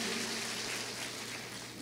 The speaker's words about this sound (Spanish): Denle un aplauso. Merece la gloria. Póngase de pie.